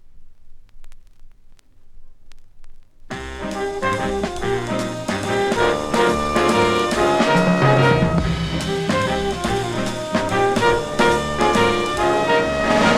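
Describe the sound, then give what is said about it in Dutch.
After about three seconds of near silence, a full band kicks in loudly with the jazzy intro of the opening song of an album's B-side: dense layered instruments over steady, crisp percussion hits, with no voices. “En die heeft een meer jazzy sound eigenlijk. Gaan we even naar luisteren.”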